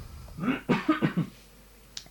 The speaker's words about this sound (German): warte, ich muss kurz husten